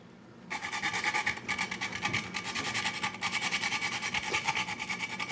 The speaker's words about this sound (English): Okay, I'm just going to add some nutmeg to this. Nutmeg is classic in a potato gratin. I a, I have a fresh nutmeg here, and I have a little nutmeg grater. I'm just going to grate it right in.